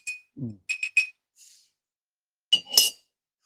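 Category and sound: household object, glass clinking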